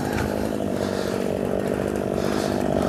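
A chainsaw idles steadily, its engine putting out a constant low, buzzing rumble with no revving, running alone for the whole stretch.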